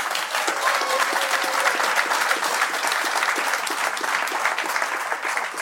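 Sustained audience applause welcoming footballer Jon Arne Riise, a dense wash of many hands clapping at steady loudness for several seconds, with no speech over it.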